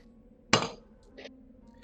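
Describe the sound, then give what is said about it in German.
A sharp clink of dice knocking together as another die is taken out, followed by a couple of lighter, fainter clicks as they are handled. No one speaks. “weiß nicht, ob du das hörst, aber ich pack jetzt extra nochmal den anderen Würfel aus.”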